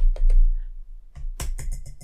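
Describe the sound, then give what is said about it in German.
Fingernail tapping on a treat puzzle toy to show a cat the treat inside: two light clicks, a short pause, then a quick steady run of about six crisp taps, with no talking. “so dagegen getippt, so nach dem Motto, hier ist das Leckerli drin, ja guck mal da drin und so”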